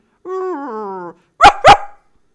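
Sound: dog barking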